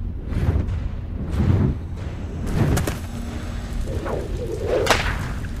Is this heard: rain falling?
no